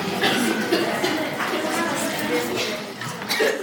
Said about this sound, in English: Okay. Okay, there's a lot of coughing and choking. Is it that bad? Is it that bad?